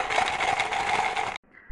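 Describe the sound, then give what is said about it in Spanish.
A tambourine, found in the straw of a stable, jingles in a steady, bright shake for about a second and a half, loud, then cuts off abruptly into near silence. “Entraron y buscaron entre la paja y hallaron una pandereta.”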